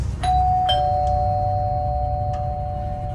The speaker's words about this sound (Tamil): அப்போது அவன் வீட்டு கதவோட பெல் ரிங் ஆகிற சத்தம் கேட்குது